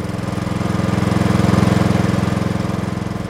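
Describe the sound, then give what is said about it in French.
A Fordson tractor, acquired in 1935 by Alexandre Trochet for his farm near Rennes, runs steadily with a loud, low, rapid chugging pulse and a rough mechanical rattle, holding an even rhythm throughout with no voices. “En 1935, Alexandre Trochet fait l'acquisition d'un tracteur Fordson, le nouveau signe extérieur de richesse rurale, l'époque où l'on appréciait l'importance d'une ferme au nombre de ses chevaux est donc enterrée.”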